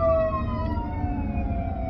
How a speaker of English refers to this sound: Hold, we got a fire engine coming.